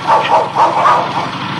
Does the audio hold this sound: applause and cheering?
no